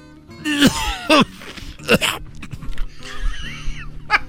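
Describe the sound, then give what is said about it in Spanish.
A man coughs several times in harsh, raspy bursts spaced irregularly, fairly loud, with rough throaty breathing and throat clearing between them. “Estás tosiendo como el brujo mayor, querido hermano.”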